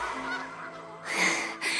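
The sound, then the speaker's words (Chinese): A duck quacks in loud, nasal, honking bursts, a drawn-out call followed by a sharper pair of quacks, with no one speaking. “为什么会有鸭子帮你捞钥匙？”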